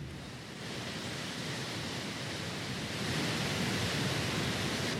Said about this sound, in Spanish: Pero está justo al frente del mar, Justo al frente de la playa, sí. Oigamos la playa